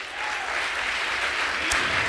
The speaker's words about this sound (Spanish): Si tú quieres darle el aplauso al Señor